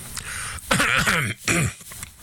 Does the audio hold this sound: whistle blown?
no